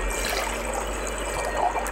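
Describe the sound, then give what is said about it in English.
Purple red-cabbage water is poured steadily through a sieve into a cauldron or container to remove the cabbage. A continuous trickling and splashing stays fairly even for the whole couple of seconds, with no voices. “Carefully pour the mixture through a sieve to remove the red cabbage and collect the solution in a cauldron or container.”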